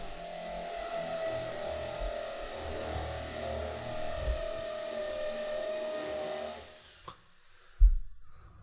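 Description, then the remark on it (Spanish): A power drill whirs steadily with a high, buzzing whine and some rough rattling underneath, then winds down and stops, leaving quiet broken by a couple of soft thumps. “El taladro. Están taladrando.”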